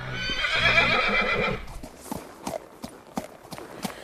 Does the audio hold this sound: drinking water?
no